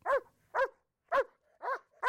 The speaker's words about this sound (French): Et pile à ce moment-là, apparaît le chien, le chien de garde du château, qui en principe est toujours dehors, attaché, et dont l'unique travail consiste à aboyer quand quelqu'un arrive.